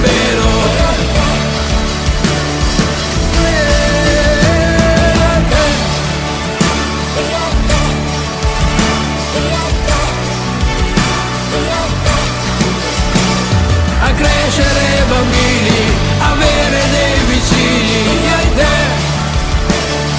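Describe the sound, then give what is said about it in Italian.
An Italian pop-rock song plays loudly and continuously, with a full band sound of steady bass, drums and sustained guitar or keyboard lines filling the whole stretch without pause. “questa è una delle canzoni che ultimamente ci state richiedendo qui al Dedicomico, eh?”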